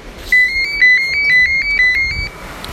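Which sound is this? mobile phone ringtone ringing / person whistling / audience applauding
mobile phone ringtone ringing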